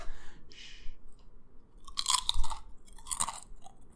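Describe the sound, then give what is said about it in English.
Crunchy chewing of pie, with a couple of sharp bursts of crisp crust breaking between softer mouth sounds, heard alone without any talking. “Like all my crunchy noises.”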